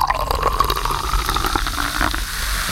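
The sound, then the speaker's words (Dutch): Water pours steadily into a glass for a toast, a continuous splashing gurgle whose pitch slowly shifts as the glass fills, with no voices over it. “En ehm, dat doen we gewoon lekker met water.”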